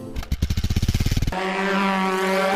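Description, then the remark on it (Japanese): A motorcycle engine chugs in rapid, even pulses, then opens into a steady, droning rev as the rider rides away on the bike, staying loud throughout with no voices. “この人もバイクで走り去るタイプ”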